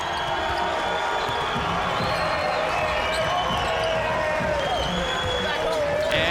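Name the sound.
arena crowd ovation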